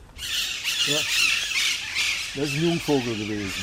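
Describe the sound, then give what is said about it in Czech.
Loud, harsh squawks of Alexandrine parakeets ring out repeatedly over a dense hiss of chatter from many birds of a huge colony in one tree, in a palace garden in a suburb of Cologne, Germany, with several sharp calls clustering close together near the end. “V jednom stromě sídlí obrovská kolonie a Alexandrové na sebe opravdu nenechají dlouho čekat.”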